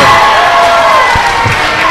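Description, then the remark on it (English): A loud, dense roar of a crowd, including many children, cheering at a wrestling match, sustained and continuous, with a couple of dull thuds and excited shouts rising from the noise. “And the crowd is loving it. Especially the kids. The kids are loving it here today.”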